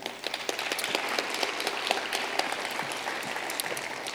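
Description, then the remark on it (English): An audience applauds steadily to welcome the panelists at a panel event, a dense wash of many hands clapping at once with scattered sharper claps standing out, holding at an even level for the whole stretch with no one speaking. “So let's re welcome our panelists with a nice round of applause here.”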